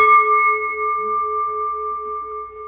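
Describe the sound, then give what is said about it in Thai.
A struck bell rings out with a steady, sustained tone, its clear metallic partials hanging in the air and fading only slightly over a few seconds, with no voices. “ทำเหมือนระฆังนี่ระฆังมันเอามันตั้งไปเฉยดูมันมันเสียงมันมีมีนะสงบสงบเสียงเมื่อมีเหตุเกิดมากระทบขึ้นมา”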